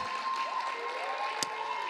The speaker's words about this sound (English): Come on, let's give them a big round of applause.